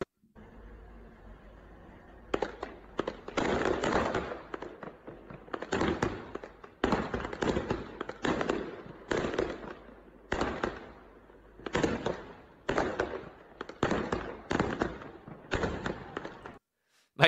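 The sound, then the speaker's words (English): Fireworks go off in a rapid, sustained barrage of loud cracking bursts, coming in irregular clusters for about fifteen seconds after a brief low engine-like rumble, as a man on top of his building launches them at an excavator carrying out a forced demolition of his house. “he's using fireworks to fight back because what's happening is is that there's a forced demolition going on.”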